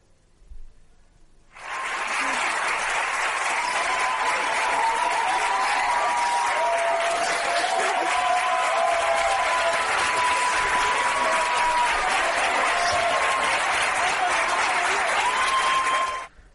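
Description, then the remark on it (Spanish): Studio audience applause from a TV quiz show promo, heard over a shot of a contestant with the rosco almost complete. It starts abruptly after a short quiet moment and keeps up at a steady, dense, loud level for about fifteen seconds before cutting off sharply. “15 segundos de aplausos que correspondían a un plano de Pablo con el rosco casi completo y él emocionándose.”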